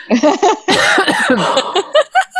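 A loud bout of coughing: several rough, harsh bursts in quick succession with a longer raspy stretch in the middle, ending in a few short hacks.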